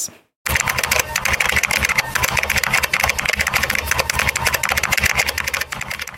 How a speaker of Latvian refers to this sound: Kas tur skanēja? Klaviatūra. Jā, tā skan pirksti uz datora taustiņiem.